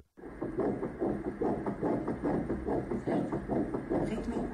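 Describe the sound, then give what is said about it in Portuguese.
A fetal heartbeat on an ultrasound Doppler: a fast, steady whooshing pulse of about two or three beats per second, thumping continuously over a low hum with no voices. “Mas vamos lá ouvir esse momento tão especial, tão emocionante para os papás, que é ouvir o coração a bater.”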